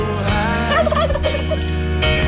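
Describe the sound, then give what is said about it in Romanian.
A turkey lets out a loud, rapid gobble, a bubbling warble that rises and falls over a couple of seconds, with no one speaking. “Punem un pic de curcan de încălzire”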